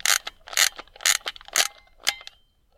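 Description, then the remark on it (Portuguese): A small wheel is turned all the way to the right in short bursts, each one a quick run of crisp ratcheting clicks, about five bursts spaced roughly half a second apart, with no voices. “Primeiro tem aqui uma rodinha que é tudo para a direita. Vocês vão ouvir agora o som ASMR.”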